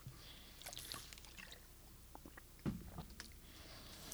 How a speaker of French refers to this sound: Je me prends une petite gorgée d'eau de deux secondes.